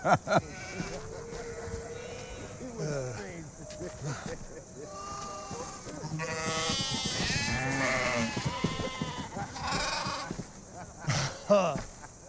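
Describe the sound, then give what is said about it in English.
Several sheep bleat in overlapping, wavering cries, loud, building into a busy chorus midway before a few sharper bleats near the end. “Stay with the sheep.”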